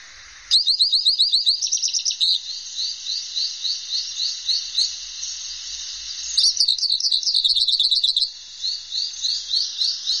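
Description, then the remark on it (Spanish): A hooded siskin sings a rapid, high-pitched twittering song, full of buzzy trills and chirps that run almost continuously, bright, with no voices or other sounds. “Estamos escuchando el bello cabecita negra.”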